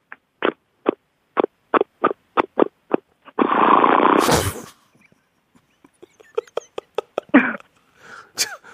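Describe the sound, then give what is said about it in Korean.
A voice imitates an old motorcycle that gives off a lot of exhaust smoke and has about 100,000 km on it, idling: a steady run of rhythmic sputtering putts, a loud rough blast in the middle, then looser putting again, ending with a bit of laughter. “저기, 죄송한데, 오토바이 타주셔야죠. 타고 좀 가주셔야죠.”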